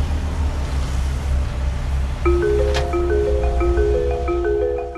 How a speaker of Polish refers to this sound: Dźwięk koparki zwykle słyszymy na budowie, kiedy przenosi gruz, albo w kopalni, gdzie koparki olbrzymy wydobywają węgiel brunatny.